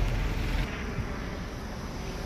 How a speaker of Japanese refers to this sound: ちょっとヘリコプター飛んできてきたんでちょっと一回切りますね